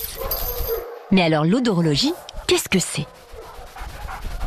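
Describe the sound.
A dog waiting in a large transport crate at the foot of some steps whines in a high, wavering whimper that rises into a short bark, with a few more yips after; a voice speaks over the sounds and background noise continues beneath.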